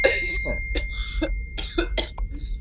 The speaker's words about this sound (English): Guys, I'm fine. It is a cough. Chill out.